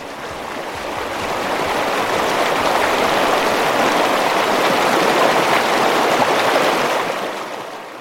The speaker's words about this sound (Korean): 이탈리아 투스카스 지역의 사투니아에 도착했습니다. 뜨끈하게 아 물소리가 아주 좋죠. 노천 온천에서 몸 좀 녹이시고 피로를 풀고 가도록 하죠.